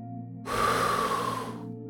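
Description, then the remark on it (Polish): A single long, loud breath pushed fully out through the mouth at the start of a breathing exercise, a breathy whoosh lasting about a second over a faint steady hum, with no talking. “Zacznij od pełnego, głośnego wydechu powietrza przez usta.”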